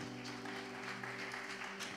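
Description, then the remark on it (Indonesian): An audience applauds together for Jesus, a steady wash of many hands clapping over a sustained keyboard chord held underneath, fairly soft throughout the brief moment. “Tepuk tangan buat Tuhan Yesus, saudara.”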